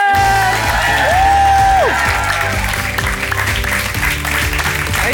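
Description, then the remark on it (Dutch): A burst of loud, sustained audience applause for Sophie Lemaire at a Studio Brussel show, with scattered cheers and whoops, dense clapping filling the whole stretch over a low, rhythmic musical backing. “Dus geef een heel warm applaus voor Sophie Lemaire.”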